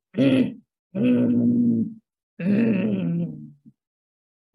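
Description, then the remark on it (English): Three deep, rough, growling kargyraa throat-singing vocal tones with a rattling low undertone, each held for about a second with short pauses between, fairly loud with no words. “Throat Singing Kargyraa and Overtone Singing”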